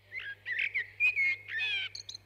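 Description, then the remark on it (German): A common blackbird sings a single varied phrase of fluting, warbling notes that ends in a few high, thin twittering chirps, clear, with a faint steady hum underneath. “Also das ist eine ganz typische Struktur von so einer Strophe, wie so eine Amsel singt.”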